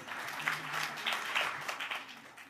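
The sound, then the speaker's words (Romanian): Steady applause from a church audience, a dense crackle of many hands clapping at a moderate level throughout, with no single claps standing out. “Haideți să-i aplaudăm.”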